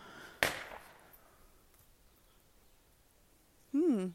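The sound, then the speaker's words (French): A single sharp firecracker bang goes off outdoors with a short echoing tail, then near silence until a person starts speaking at the very end. “il y a eu un bruit de pétard, je dirais.”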